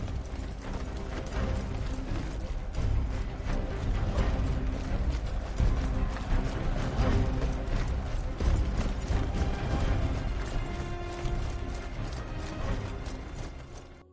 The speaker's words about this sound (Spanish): ¿Puedes imaginar el sonido del ejército de Faraón pasando por las calles?